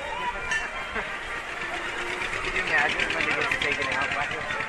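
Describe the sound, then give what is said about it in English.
A fire truck's engine rumbles and chugs steadily as it drives past on Main Street, with a busy wash of crowd voices and chatter underneath throughout. “Oh, look out for the fire truck.”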